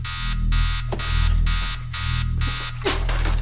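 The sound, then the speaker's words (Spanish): A timer alarm rings in repeated electronic bursts, each about a third of a second, pulsing steadily over a low hum, with a brief click near the end. “La luz parpadea, Kaylee coge la que suena.”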